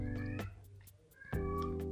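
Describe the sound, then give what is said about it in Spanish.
A pet cat meows twice, two drawn-out, loud cries separated by a brief pause, with no one talking over them. “Uy, mi gato.”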